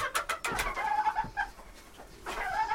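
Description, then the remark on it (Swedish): Hens clucking in a busy, overlapping chatter of short, mid-pitched calls and soft warbling notes, a steady murmur with a few sharper clucks standing out, no voices. “Det är det som är lite kul med, alltså, med hönsen.”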